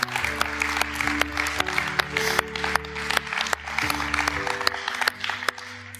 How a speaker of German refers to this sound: Und äh, wir geben dir einfach mal ganz, ganz einen großen Applaus. Merci vielmals.